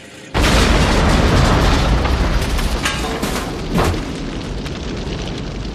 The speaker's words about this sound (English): Callahan tosses the bomb from his mailbox into the car before Briggs takes it away, and he makes it about a half block before the bomb goes off and just rips the car to shreds.